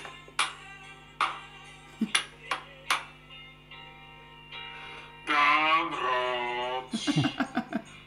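phone beeping

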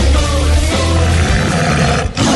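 tiger roar sound effect

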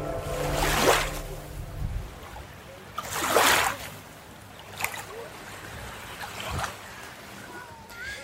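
waves on a beach

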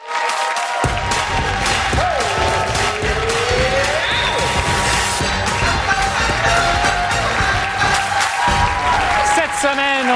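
studio audience applause

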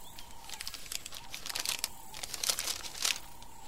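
paper letter being unfolded

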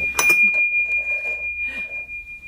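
small bell ringing

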